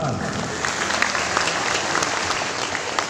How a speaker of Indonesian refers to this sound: Sungai Melayu. Ya, tepuk tangan.